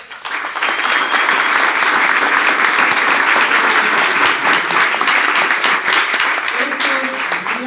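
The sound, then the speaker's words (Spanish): A crowd of people applauds steadily for guests from Costa Rica, a dense, sustained wash of clapping that starts quickly and holds at full strength throughout, with faint voices mixed in. “Pero hoy acá tenemos unos Esmeraldas de Costa Rica, que me gustaría que les diéramos un aplauso, por favor.”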